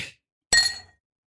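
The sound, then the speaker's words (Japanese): Glasses clink together in a toast to two people's coming of age, a bright ringing chime that fades over about half a second, following the tail of an earlier clink. Clear, with no voices. “では2人の成人 ×2 に乾杯乾杯”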